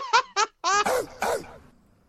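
A quick run of about five gruff, growling barks in a rapper-style bark effect, loud and close, with the last ones rougher and a short echo trailing off.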